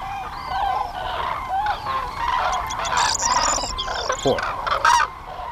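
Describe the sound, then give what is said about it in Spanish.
A large flock of hundreds of migrating cranes calls overhead in autumn in a continuous, overlapping chorus of loud bugling and trumpeting cries, dense and noisy, with no talking. “Cientos de grullas pegando gritos y eso hace mucho ruido.”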